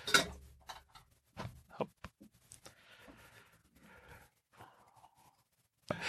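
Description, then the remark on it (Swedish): An external SSD disk is dropped into a glass of water: a few sharp clinks and knocks, then a soft fizzing, bubbling hiss for several seconds, fairly quiet. “Men det var alltså eh, vatten. Det var en styck SSD extern disk in i vattenglas.”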